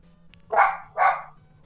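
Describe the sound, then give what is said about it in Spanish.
A dog barks twice in quick succession, two loud, full-bodied woofs about half a second apart, with a low steady hum underneath and no one talking. “Qué perro mi vecina. Es creo que está solita.”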